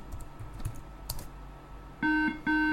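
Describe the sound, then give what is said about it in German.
Several quick, light keyboard taps in an irregular rhythm as a password is deliberately typed wrong on a computer keyboard at login, followed by two short, loud electronic beeps in a row. No one speaks. “Jetzt gebe ich das Passwort mal falsch ein.”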